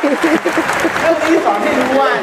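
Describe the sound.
An audience claps in a steady, dense patter of many hands, with people's voices and some cheering rising over the noise for the whole stretch.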